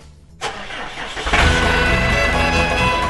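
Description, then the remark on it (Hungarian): A farmer gets onto a cultivator, and the farm machine's engine turns over and catches, then swells into a loud, steady, low rumble. No voices are heard. “Mihálovics gazda most felpattant egy kultivátorra”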